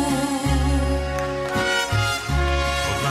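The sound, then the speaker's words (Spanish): A mariachi band plays a song loudly for Friday karaoke, with full sustained chords over a steady low bass line that shifts every second or so. No voices are heard. “Pues con mariachi porque es viernes, viernes de karaoke, qué gusto saludarlo.”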